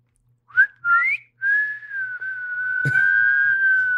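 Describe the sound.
A person whistles alone: two short rising chirps, then one long, steady sustained note held to the end, with a brief click partway through and a faint low hum underneath.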